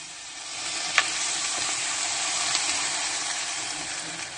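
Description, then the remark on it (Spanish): Steady fizzing hiss with fine crackling bubbles of boiling liquid nitrogen with samples inside, holding an even level throughout with a couple of brief sharper pops and no voices. “Esto es nitrógeno líquido y dentro hay muestras.”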